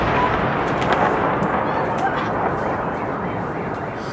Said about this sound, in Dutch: Die vloog over de stad en belanden ergens, explodeerde in de stad zelf. En je ziet op de beelden zie je mensen met machinegeweren die proberen om die drone eh, uit de lucht te halen.